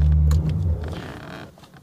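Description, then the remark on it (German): A Ferrari 355 GTB engine gives a loud, deep rumbling roar with steady low tones, then the note breaks up into a rougher, fading growl over about two seconds. No one speaks. “für dich gibt es jetzt ein äh, Ferrari 355 GTB.”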